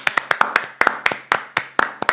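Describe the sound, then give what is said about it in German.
A quick run of sharp hand claps held at the microphone, about fifteen in just over two seconds, loud and slightly uneven in rhythm, with no talking. “jetzt muss ich eigentlich fast das Mikrofon anlegen zum Klatschen, aber du musst dich, glaube ich, auch selber beklatschen”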